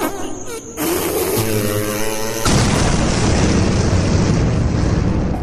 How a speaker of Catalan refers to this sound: I de cop, el bou va fer un pet